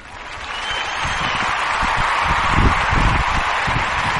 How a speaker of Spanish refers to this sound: la verdad es que se merece bueno, un aplauso.